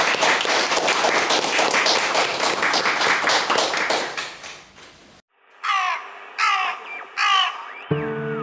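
A small group claps steadily for about five seconds, the applause fading out; then three harsh, repeated caws ring out against the quiet, with a brief low tone at the end.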